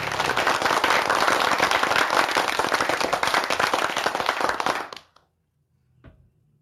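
A crowd of guests claps steadily in dense, loud applause for about five seconds to encourage a child about to sing, then it cuts off abruptly into near silence with one faint soft knock afterward.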